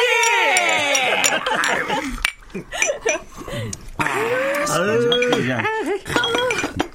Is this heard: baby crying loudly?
no